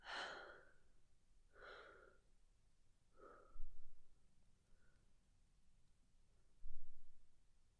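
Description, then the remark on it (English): A series of audible breaths at a steady, even pace in a breathing exercise, breathing in for a count of three and out for a count of three, each one softer than the last, with a couple of dull low thumps in the background and no talking. “I'd like to breathe in for three and out for three.”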